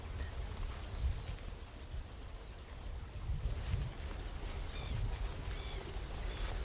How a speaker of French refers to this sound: un petit avion vient de nous survoler. Et je pense que de là-haut, ça doit être très beau de voir le marais.